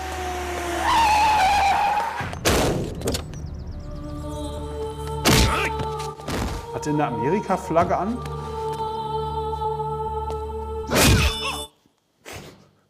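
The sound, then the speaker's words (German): Exaggerated film fight-scene kick and punch sound effects, one for a kick to the groin: several sharp, heavy whacks land a few seconds apart, loud and booming, with a squealing tone at the start and a voice talking between the hits. “Weil das ist halt wirklich, er tritt ihm in die Balls und es macht so.”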